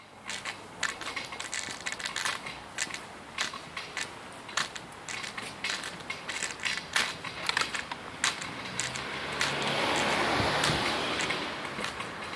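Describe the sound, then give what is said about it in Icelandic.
A car speeds past on Bergstaðastræti, a city street, its rushing whoosh swelling and fading over a couple of seconds, amid a steady scatter of sharp clicks and crackles throughout. “Og hérna heyrum við sérstaklega bergstæðastrætið hérna fyrir framann okkur bíl fyrir brunaði verkstæðastrætt.”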